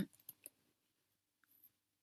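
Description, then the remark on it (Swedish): A short burst of light computer keyboard clicks, four or five quick taps typed right next to the microphone, then near silence apart from a faint brief tone. No one speaks. “När jag skrev skriver på tangentbordet precis vid mikrofonen.”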